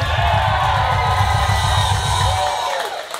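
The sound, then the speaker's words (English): A loud live audience applauds and cheers steadily for Luke Kidgell, with whoops and shouts over dense clapping and a pulsing low rumble, fading slightly toward the end. “Can we get another round of applause for Luke Kidgell?”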